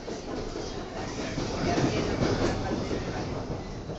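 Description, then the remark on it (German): A train rumbles steadily along the rails with a dense, continuous roar and faint rhythmic clatter, with no voices, on the hour-and-a-half ride from Buenos Aires out to Merlo, a town in Buenos Aires Province, Argentina. “Mit dem Zug geht es eineinhalb Stunden bis Merlo, einer Kleinstadt mit 250.000 Einwohnern.”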